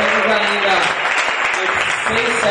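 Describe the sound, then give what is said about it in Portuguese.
A crowd bursts into a huge, loud, sustained round of applause for an exceptional moment, a dense wash of many hands clapping at once, with voices cheering and talking mixed in near the start and end. “É, gente, é isso salva de palmas gigantes para esse momento excepcional.”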